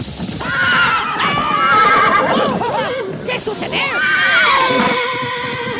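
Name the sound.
horse neighing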